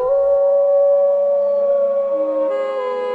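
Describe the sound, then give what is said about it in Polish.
A long, loud werewolf howl in a small town in Maine holds one steady, wavering pitch for about three seconds, alone with no talking, shifting slightly in tone near the end. “To wilkołak.”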